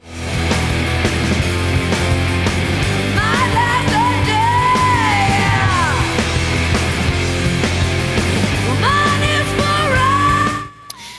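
A loud, dense rock song plays with raw, yelled vocals over distorted guitars and pounding drums, running steadily for about ten seconds before cutting off abruptly.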